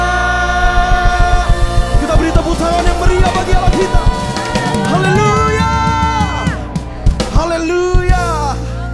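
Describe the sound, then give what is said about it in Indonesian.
A large church audience shouts Hallelujah and cheers loudly and continuously, many voices overlapping in joyful praise of God for His miracles, with worship music playing underneath throughout. “Mari yang mengalami mujizat Tuhan lebih sungguh lagi serukan Haleluya”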